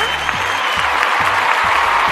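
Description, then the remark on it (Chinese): On-site staff cheer and clap after a countdown, celebrating the lifting of controls on routes out of Hubei, in a dense, continuous roar of celebration, while a low rhythmic thump repeats roughly twice a second underneath throughout. “终于在封闭了多日之后，现场的工作人员也是忍不住啊，倒计时开始狂欢庆祝起来了。”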